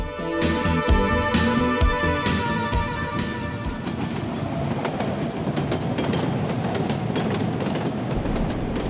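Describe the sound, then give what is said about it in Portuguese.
A New York City subway train rumbles along steadily, with rhythmic clattering and sharp metallic clicks early on, then a dense, continuous roar of wheels and rails. No one speaks. “E o metrô é o melhor meio de transporte para se locomover em Nova York.”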